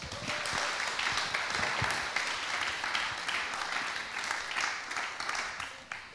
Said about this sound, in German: Okay, Sie da hinten. Ja, wollen Sie mal kurz vorkommen? Ja. Kurz mal Riesenapplaus. Applaus